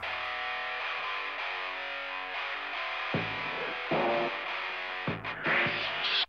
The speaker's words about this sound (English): Except the kick drum that comes in right at the beginning sounds like a mistake. It sounds like a weird fart.